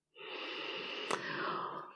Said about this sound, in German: Atme mal jetzt ganz bewusst, wie schön das ist.